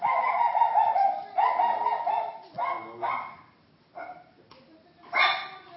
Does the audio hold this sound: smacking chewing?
no